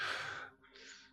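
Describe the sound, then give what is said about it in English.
A single forceful sneeze bursts out as a loud breathy blast, then fades into a softer airy exhale or sniff, with no talking around it. “bless you.”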